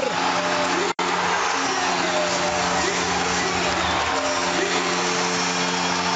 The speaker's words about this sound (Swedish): Och stället går bananas! Fullständigt! Gälleräven Center jublar.